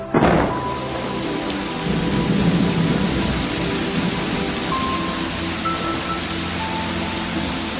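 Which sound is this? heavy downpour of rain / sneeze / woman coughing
heavy downpour of rain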